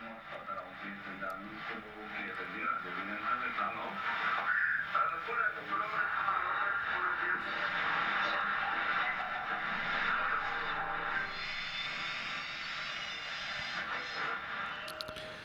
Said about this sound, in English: There is some interference with our news here uh, by Sounds like Russian.